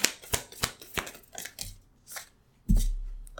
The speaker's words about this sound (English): There's one card that came out, but I feel like I should shuffle to see if there's any more that wants to come out.